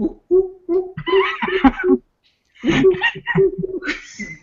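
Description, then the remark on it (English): A voice mimics the chimp-like noises the cat Roar made while being fed: a quick run of rhythmic hooting calls, a brief pause, then another excited burst that rises in pitch, fairly loud. “I've heard a lot of Roar's noises, but like he sounded straight up like a chimp when I was feeding him.”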